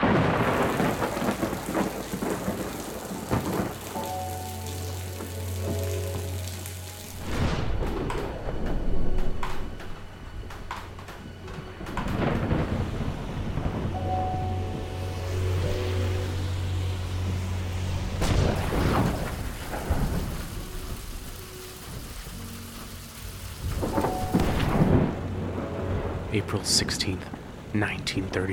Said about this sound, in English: It has been raining for three weeks without break or respite.